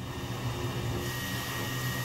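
Red printing ink being spread onto a roller in a print shop that prints playing cards, heard as a steady mechanical whirr with a low rumble that holds constant throughout, with no voices.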